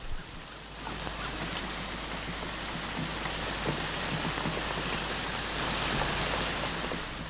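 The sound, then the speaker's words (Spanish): Heavy rain pours down in a steady, dense hiss, with countless drops pattering and splashing. The downpour builds quickly and stays loud and constant, with no voices. “En eso empezó a llover y cayó un gran aguacero y las calles se volvieron como ríos.”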